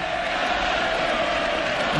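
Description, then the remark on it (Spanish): A huge stadium crowd of thousands of Sevilla fans chants the name of Colombian player Carlos Vaca, "Vaca", in unison, a loud, sustained roar of many voices with a steady sung tone running through it and no individual speech. “Miles de sevillanos cantan vaca, vaca, vaca.”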